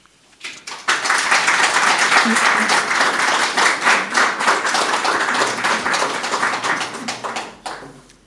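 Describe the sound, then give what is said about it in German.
Sustained audience applause at a poetry slam after a performer finishes a text, dense overlapping clapping from a crowd rising quickly and holding steady for several seconds before tapering off, with faint voices mixed underneath. “Ja, so ungefähr kann das klingen auf einer Poetry Slam Bühne.”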